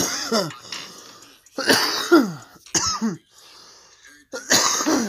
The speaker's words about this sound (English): Sorry, told you guys. told you guys I was gonna cough for you guys.